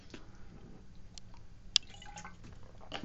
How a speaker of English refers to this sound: Just grab a quick sip of water there.